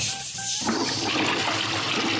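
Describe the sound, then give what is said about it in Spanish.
A child imitates the flush of a toilet when the chain is pulled, using the voice: a short pitched tone that breaks into a loud, steady rushing hiss for about two seconds, with no words. “Cuando tiras de la cadena. ¿De la cadena de qué? Del váter.”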